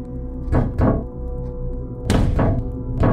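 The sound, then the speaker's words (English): Heavy thuds of something thrown striking a window, arriving in two quick pairs about a second and a half apart. Each is a dull, loud knock over a low steady hum. “I, I, I assume it's the boy He's throwing something at the window, but.”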